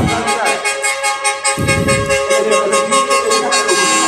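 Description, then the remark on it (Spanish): Loud, sustained horns of trailer trucks decorated with balloons blare together in overlapping tones during a parade, with a dense rumble of engines and crowd noise underneath, as a procession of heavy vehicles passes by. “Igual trailers con el mismo sonido y hasta con claxon y globos.”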